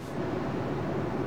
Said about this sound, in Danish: hvis man kan høre lidt larm i baggrunden, så er det simpelthen fordi, vi er på vej hjem i bil